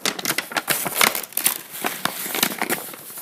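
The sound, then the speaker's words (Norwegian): Paper crumpled, a dense run of crisp crackles and rustling snaps that goes on steadily for a few seconds with no voices. “Eller eh, knurving av papir, sånn som det her.”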